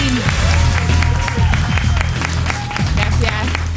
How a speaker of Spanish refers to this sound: Y nos acompaña la varias veces campeona olímpica, mundial y europea de alterofilia. Aplauso para Lidia Valentín.